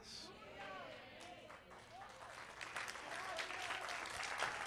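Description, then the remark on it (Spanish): An audience of people who have prayed bursts into sustained applause, a dense wash of clapping that builds and grows louder over several seconds, with scattered voices calling out beneath it. “Los que han orado pueden aplaudir.”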